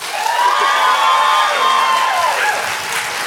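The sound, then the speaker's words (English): An audience claps and cheers loudly and steadily for those who think the answer is 'mishmash', with shouts and whoops rising over dense applause for a few seconds before easing slightly. “Uh, now, clap as hard as you can if you're correct in thinking it's mishmash.”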